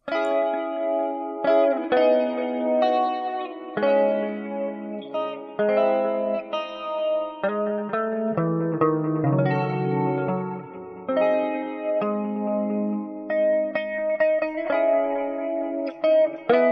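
A melodic electric guitar plays chords and lead lines drenched in effects, with reverb, chorus and light distortion, steady and fairly loud throughout with no voices.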